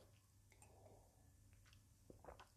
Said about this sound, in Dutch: Ik neem even een slokje thee tussendoor.